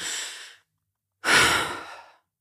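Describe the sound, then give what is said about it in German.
A deep, audible inhale followed after a pause by a long, breathy exhale, a person outdoors taking a big demonstrative breath of fresh air, with no talking. “Und draußen kann man auch einmal dieses machen, dieses”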